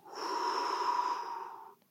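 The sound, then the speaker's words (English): A single long, steady exhale lasting nearly two seconds, airy with a faint whistling tone, then silence, during a slow, deep box breathing exercise. No one speaks. “Resistance exercises, uh, breathing, uh, slow, deep breathing, 424, box breathing. So you breathe in through your nose.”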